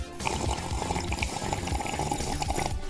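Iced Pepsi pours steadily into a glass with ice and lemon for about three seconds, a continuous splashing and fizzing with no one speaking.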